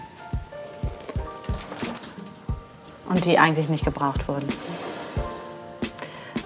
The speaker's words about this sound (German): Der Hund ist aufgestanden, das heißt, äh, das Zeichen. ist ein Zeichen.